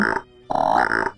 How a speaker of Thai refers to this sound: พอขาดคำ ก็มีเสียงกบร้องคราวนี้ เสียงมันช่างใหญ่จริงๆผิดไปกับเสียงกบที่ได้ยินจากบ้านคุณหลวง